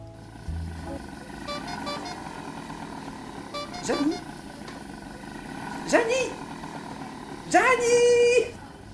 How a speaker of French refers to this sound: Mais ce petit moment familial est interrompu par des bruits de klaxons, de moteurs bientôt grippés et de cris lointains.